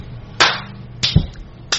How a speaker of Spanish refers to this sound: Un aplauso para Gambeta.